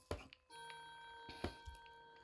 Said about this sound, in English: Sorry, my clock is going to go off. Um, okay, it'll be done in a second. I apologize. I should have turned it off.